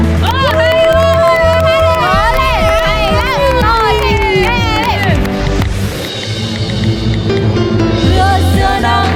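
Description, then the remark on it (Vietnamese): A loud crowd bursts into sustained applause mixed with excited cheering and high-pitched shouts, continuing steadily for several seconds without letting up. The residents of an apartment complex are applauding a performance held in celebration of SEA Games 31. “Đề nghị tất cả mọi người cho một tràng pháo tay thật lớn thật dài.”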